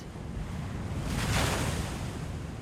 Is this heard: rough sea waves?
yes